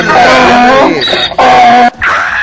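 A donkey brays loudly, a few harsh, rasping honks alternating back and forth in a seesawing rhythm, with no one talking over it.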